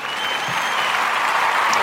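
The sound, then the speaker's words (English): Steady crowd applause, a dense wash of many hands clapping at an even loudness throughout, with no clear individual claps standing out. “thank you, crowd, for that.”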